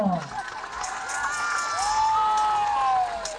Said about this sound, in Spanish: vamos a recibir con un fuerte aplauso a Tania